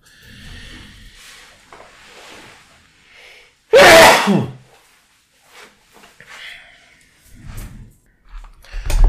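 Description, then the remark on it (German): A single loud, sharp sneeze bursts out in an otherwise quiet stretch, with a brief breathy tail and some faint rustling before and after. “Muss ich jetzt niesen oder röpsen?”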